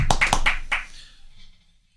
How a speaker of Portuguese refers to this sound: Eu um queria uma salva de palmas pro, pro militar morto covardemente na última sexta-feira.